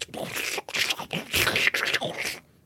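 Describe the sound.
A voice imitates scraping and scrabbling, a few harsh, breathy rasping bursts with short gaps, like something clambering around on a rough wall above, fairly loud before stopping.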